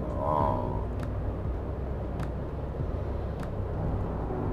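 Steady, dense low rumble of a car interior on the move, recorded while driving as a microphone test, road and engine noise droning evenly throughout, with a few faint brief ticks over the top.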